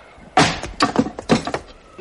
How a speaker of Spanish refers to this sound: El mayordomo blandió el hacha. El golpe hizo estremecerse el edificio y la puerta saltó contra la cerradura y los goznes.